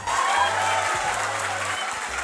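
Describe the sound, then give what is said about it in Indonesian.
A crowd claps steadily, a dense wash of many hands applauding at once, fairly loud and continuous with no pauses, sounding like a live audience. “Jangan jangan tepuk tangan eh.”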